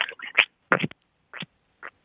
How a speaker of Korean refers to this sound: 자 개구리 개구리입니다. 개구리를 좀 가까이 대고 해보세요. 가까이 대고 예.